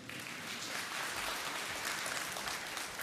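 A steady round of applause, many hands clapping in a dense, hissy patter that holds at an even loudness for about three seconds, with no voices over it.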